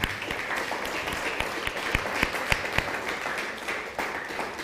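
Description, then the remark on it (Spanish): A crowd applauds steadily, a dense wash of many hands clapping at an even loudness, with a few sharper individual claps standing out near the middle. “ahora sí, saludos y, y Shalom un fuerte aplauso.”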